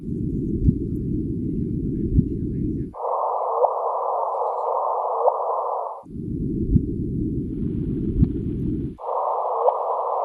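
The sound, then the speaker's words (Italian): An electronic sonification of gravitational waves from objects 20 to 30 times the Sun's mass: steady synthetic tones alternate between a low hum and a higher band in blocks of about three seconds, with brief clicks, loud and with no one talking. “Eh, sentiamo un attimo il suono di queste, di queste onde.”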